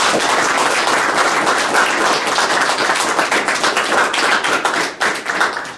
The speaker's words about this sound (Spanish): Y un aplauso